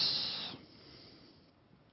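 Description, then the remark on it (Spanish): A person takes a deep breath and exhales: an airy breath rushes out loudly in the first half second, then trails off into near silence with only faint background hiss. No one speaks. “Tomamos una respiración profunda, exhalamos,”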